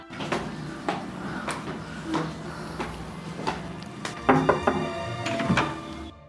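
A front door being opened, with a series of close knocks, clunks and rattling from the latch and frame, growing busier toward the end, with no one speaking.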